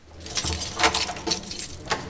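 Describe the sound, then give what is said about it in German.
Keys jangle and scrape in the lock of a massive door to a shielded, thermally stabilized lab cabin at a meteorological institute, a series of bright metallic clinks and rattles with a few louder clacks as the lock turns; no one speaks. “Dort schließt er eine Tür auf, die auffallend wuchtig ist.”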